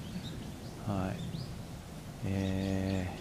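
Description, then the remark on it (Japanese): Faint brown-eared bulbul calls chirp and sweep outdoors at Izumi no Mori in Yamato, downstream of the main part of the park, a few scattered notes under a man's brief, hesitant speech. “今メインで鳴いてんのはまあヒヨドですねはい今日はですね、えー、泉の森ですねはい大和の、えー、泉の森っていうところの”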